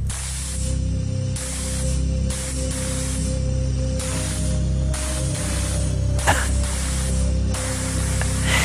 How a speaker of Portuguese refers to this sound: E por cima desta sinfonia de sprays lia-se a mensagem.